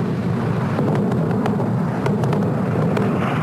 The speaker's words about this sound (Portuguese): O ataque começou aproximadamente a uma hora mas a parte mais intensa, realmente aí você vê fortíssimas explosões, fogo, fazendo rolos de fumaça. E a gente consegue já ouvir o barulho das explosões e das baterias antiaéreas.